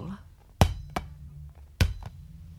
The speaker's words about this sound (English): Someone's bouncing a ball.